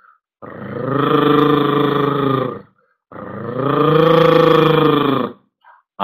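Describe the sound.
A person imitates a dog's growl, the way Chaliapin growled at his bulldog Bulka, making two long, loud, rumbling growls, each lasting a couple of seconds with a short pause between them.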